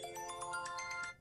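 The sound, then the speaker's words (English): A mobile phone ringtone plays a bright, repeating electronic melody of quick pulsed notes, steady, cutting off abruptly after about a second, with no one speaking. “Well, that was my phone.”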